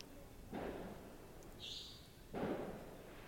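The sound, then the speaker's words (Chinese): Two muffled bursts of firecrackers crackle faintly about two seconds apart outside, near a temple, each a short rough rattle of pops over a quiet background hiss, with a brief higher whistle between them. “现在大家有没有听到外面有鞭炮声？”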